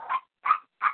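A dog barks three times in quick succession, short sharp yaps spaced evenly and fairly close by, with no talking underneath.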